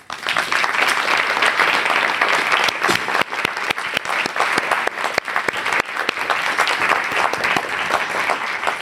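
Loud, sustained audience applause welcoming a guest, a dense wash of many hands clapping at once with no voices standing out, holding steady throughout.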